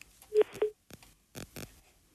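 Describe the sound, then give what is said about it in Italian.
Two short, clear electronic beeps from a phone line sound in quick succession after a dropped phone call, followed by a few muffled clicks and rustling bursts. No one speaks. “Ho perso una telefonata evidentemente.”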